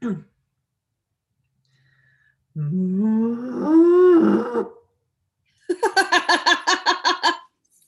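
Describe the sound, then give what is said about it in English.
A woman imitates a cow's moo with one long, drawn-out voiced call that swells and rises in pitch, followed shortly by a burst of rhythmic, pulsing laughter. “but i can do a very good cow impression would you like to hear it”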